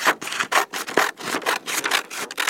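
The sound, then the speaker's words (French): Women's fingernails scratching back and forth across nylon stockings in quick, rhythmic strokes, a dry, hissing rasp repeated about eight times with no voices. “Et le bruit des ongles des femmes sur les bas à nylon, c'était d'une beauté, vous ne pouvez pas savoir.”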